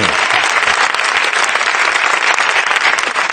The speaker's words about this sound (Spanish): Y un aplauso también para el regidor, que es su cumpleaños.